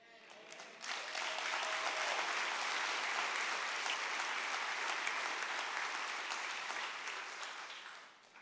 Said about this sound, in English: that applause is our way of saying, Man, we are thrilled you are a part of the New Hope family.